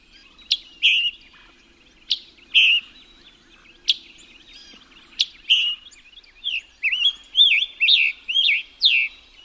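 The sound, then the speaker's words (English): A tropical migrant songbird with contrasting bright and dark colors, in the summer canopy, sings bright, high whistled phrases, starting with spaced two-part calls, then building into a quicker run of rising and falling notes, clear with no voices. “The contrasting bright and dark colors mimic summer's pattern of light and shadow within the canopy. Thus the bird is often concealed.”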